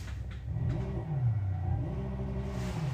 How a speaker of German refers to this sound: Diese Mercedes haben alle denselben Sound.